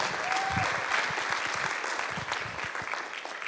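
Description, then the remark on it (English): A crowd applauds steadily, a dense wash of many hands clapping at an even, fairly loud level that carries on throughout without pause or voices. “Give it up for these guys.”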